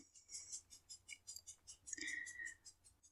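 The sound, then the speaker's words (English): Soft, rapid scratching repeats in a steady rhythm as several dogs, just woken from sleep, scratch at itches; faint, with a brief louder scrape partway through, and no voices. “you hear something in the background is because the dogs who have been sleeping are now getting itch attacks.”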